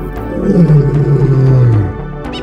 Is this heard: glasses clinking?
no